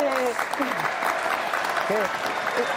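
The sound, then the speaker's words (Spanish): A steady burst of applause, dense continuous clapping at an even level throughout, with a few voices briefly calling out over it. “Aplausos, sí. aplausos.”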